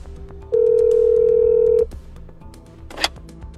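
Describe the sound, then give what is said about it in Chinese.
A telephone dial tone: a loud, steady, low-pitched hum that holds for over a second and then cuts off, followed by a faint background and a brief click or rustle. “文森特一脸淡漠的接过电话。”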